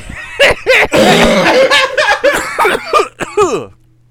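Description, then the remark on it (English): Loud laughter from more than one person breaks into several harsh coughs, bursts of laughing and coughing tumbling together before trailing off into quiet. “So funny it made us uh. cough. We're leaving that in.”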